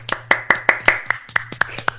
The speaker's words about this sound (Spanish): Un aplauso para la consolidación, por favor.